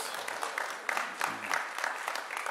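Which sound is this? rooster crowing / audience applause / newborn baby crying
audience applause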